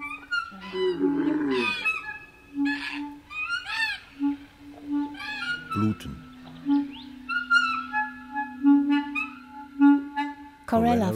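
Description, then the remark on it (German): Camels groaning in low, drawn-out moans that bend and slide, over a steady droning hum, with scattered whistly, chirping calls and a loud rough burst at the end. “Die Kamele stöhnen.”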